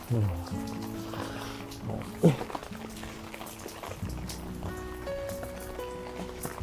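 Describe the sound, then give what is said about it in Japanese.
Steady rain patters on a surface throughout, a soft continuous hiss beneath a man talking who carries a lightweight folding umbrella bought on Amazon, with a brief sharper knock partway through. “まあ、あの、もしね、雨が止んだりとか、済んだりしたら、ズボンの後ろポケットに入れようと思ってたんで、これで、これを持ってきてました。”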